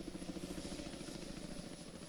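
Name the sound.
helicopter rotor and engine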